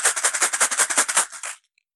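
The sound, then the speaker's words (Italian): A jar of 77 glass beads meant for Magic players is shaken hard, giving a bright, dense clatter in a quick steady rhythm for about a second and a half before it abruptly stops. No one speaks. “Ho tirato fuori il mio vaso di perline in vetro per giocatori di Magic di alto livello.”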